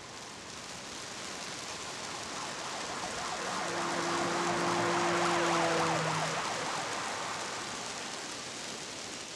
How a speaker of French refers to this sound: Détective Creux sort de chez lui démarre sa voiture et s'enfonce dans la pluie noire.